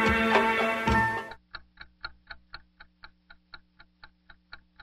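A burst of loud music cuts off abruptly, followed by a wall clock ticking alone: sharp, evenly spaced clicks at a brisk, steady rhythm, moderately loud against a faint low hum.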